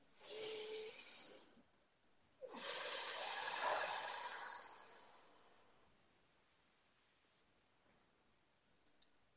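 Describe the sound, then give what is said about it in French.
A slow deep breath taken as a breathing exercise: an airy inhale of about two seconds, a brief pause, then a longer, louder exhale that gradually fades into quiet. No one speaks. “Euh, donc on va faire une respiration.”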